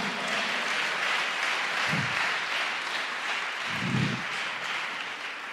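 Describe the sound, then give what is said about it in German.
A crowd claps steadily and densely for several seconds, giving applause to God, a continuous wash of many hands with a couple of brief low thumps mixed in. No one speaks. “Der Fall des Menschen, ja, wir können Gott mal einen Applaus geben, auch für dich.”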